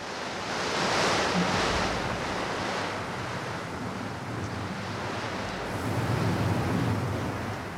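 A steady, loud roar of stormy wind rushes without pause, surging stronger near the start and again toward the end, with a low rumble beneath and no voices.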